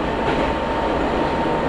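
A commuter train on the Izuhakone Railway Daiyuzan Line in Japan runs along the rails from Anabe towards Tsukahara and Gohyakurakan, with a steady, dense rumble and rolling wheel noise, loud and continuous throughout, with no voices.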